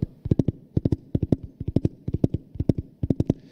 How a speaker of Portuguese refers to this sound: Imagine que todos nós estávamos andando numa carruagem, e os cavalos andando.